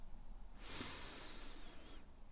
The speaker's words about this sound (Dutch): Je kunt mij volgen. Adem rustig in door je neus